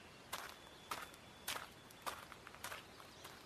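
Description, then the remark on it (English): Steady footsteps crunch through leaves and twigs on a forest floor, about one step every half second, quiet, with a faint high tone lingering in the background. “He went deeper and deeper into the forest.”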